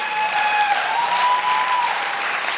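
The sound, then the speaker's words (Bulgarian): Steady applause from a sizable audience, a dense wash of clapping that holds at an even level throughout, with a faint sustained tone threading underneath. “О, ако ръкопляскаш, ръкопляскай, като че наистина вярваш.”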